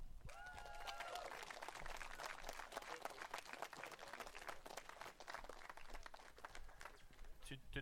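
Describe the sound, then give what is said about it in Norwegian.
Dense, steady audience applause with many overlapping claps, sustained at an even level throughout. A brief whistle-like cheer rises at the start, and voices mingle faintly within the clapping. “Tusen takk for uh applausen, får jeg vel si,”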